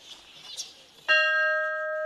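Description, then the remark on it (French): A single loud strike of an old bell in the historic area of the Albert Schweitzer museum in Gabon, ringing out with a clear metallic tone that sustains and slowly fades, preceded by faint background rustling. “on arpente euh, la zone historique du musée Albert euh, Schweitzer et on tombe sur la cloche. Est-ce qu'elle fonctionne encore, cette cloche”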